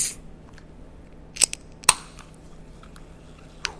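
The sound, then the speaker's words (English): A can of lemon-flavoured, zero-sugar sparkling water being opened: two sharp metallic clicks in quick succession, then a lighter click a moment later, with no talking. “Uh, this is the one we've got today, which is the lemon one. So let me just open this up.”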